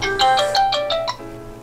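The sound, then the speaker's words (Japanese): A mobile phone ringtone for an incoming call plays a quick, bright melodic pattern of repeating tones, six or so notes in a rhythmic run, clear, with no one talking over it. “畑さんから電話ですわ”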